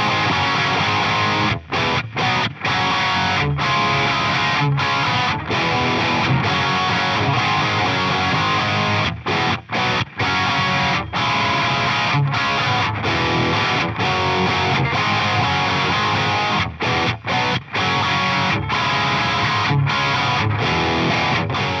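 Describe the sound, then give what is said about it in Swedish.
A heavily distorted electric guitar roars through a Marshall Slash AFD100 amp, dense and buzzing across the whole range, with brief abrupt cutoffs breaking the sustained wall of sound. No voices. “eh, Det är väldigt fräsigt, det är ganska vilt ljud.”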